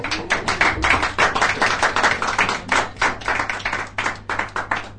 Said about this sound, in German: Und Applaus! Applaus!